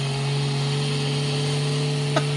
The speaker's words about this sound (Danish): det er simpelthen resonansen for de her to luftoppustede boards, der ligger oven på hinanden, op på taget